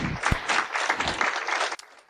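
A crowd bursts into steady, dense applause for the women who took part in cardboard testimonies, many hands clapping together, before the clapping cuts off abruptly near the end, leaving quiet background noise.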